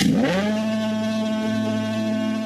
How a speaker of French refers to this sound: Personnellement, mes trois préférés sont trois variations de sonnerie. La sirène de Silent Hill de Christophe Gans, la corne de brume dans The Lighthouse de Robert Eggers,